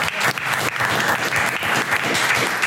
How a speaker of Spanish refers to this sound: Hey, eh, un aplauso para los de Durango